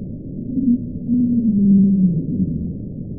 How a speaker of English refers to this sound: they think it's the sound of a large iceberg running aground in Antarctica